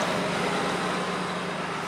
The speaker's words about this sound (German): Hier fährt übrigens gerade unser Bus an uns vorbei. Hallo Bus. Tschüss Bus.